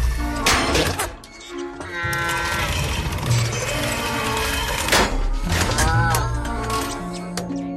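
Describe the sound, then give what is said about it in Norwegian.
The robot Wall-E, low on energy after waking, whirs and whines with wavering, drawn-out electronic tones, punctuated by several loud bangs and clattering crashes as it bumps into things half-dazed. “solmangel, og Wally -E surrer rundt og krasjer inn i ting i halvsvime.”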